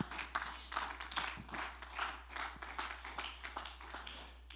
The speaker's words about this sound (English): Let's clap our hands to the Lord.